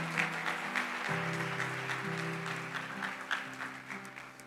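A church audience claps for Jesus steadily in a dense, sustained wash of applause, with sustained organ or keyboard chords droning underneath throughout.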